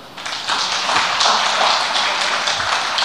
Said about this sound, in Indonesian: Kayaknya boleh tepuk tangan dulu di situ.